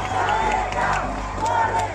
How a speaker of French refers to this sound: Ils l'entourent d'une corde au niveau de la tête et des pieds. Il tire et la statue s'effondre sous les cris de la foule.